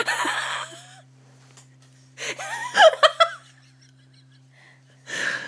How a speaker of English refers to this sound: It was the sniff, wasn't it? It was creepy.